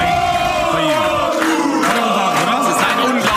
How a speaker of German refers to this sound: Wahnsinn, diese Stimmung hier. Ja, dann stand die Arena Kopf, ne?